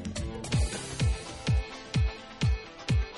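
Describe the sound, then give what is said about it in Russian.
A pop track by a male performer, played in a guessing game for listeners to name the artist or song title, plays loud, driven by a deep booming kick drum thumping on a steady beat about twice a second over dense layered music, with no talking. “сейчас мы будем слушать э, треки. Вам нужно будет угадать либо исполнителя, либо название песни.”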